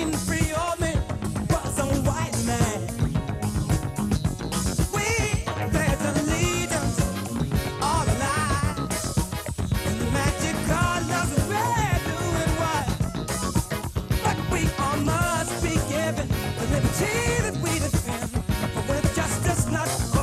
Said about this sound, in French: Les basses euh, au clavier n'ont pas été inventées par Michael League et Snarky Puppy.